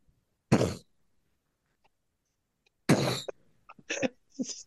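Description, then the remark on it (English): A voice imitates explosions heard from an Oppenheimer screening in the next theater during Barbie: two loud, breathy bursts a couple of seconds apart, then a string of shorter, quieter mouth noises, with no other speech. “like explosions. it was like the speeches were constantly being like, blown out by the explosions from next door.”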